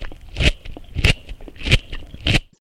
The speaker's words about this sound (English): And this is a crunchy carrot.